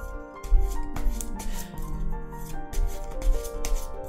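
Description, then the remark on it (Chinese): A Waite tarot deck being shuffled for a reading, a run of quick papery riffling bursts in uneven rhythm, set against steady background music with sustained tones. Nobody speaks. “这个洗牌的动作是证明给大家看，我是真的洗牌，随机抽出来之后，呃，进行的解读，不是事先安排好的哈。”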